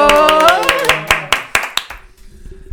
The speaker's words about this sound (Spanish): Entonces vamos a darle un aplauso.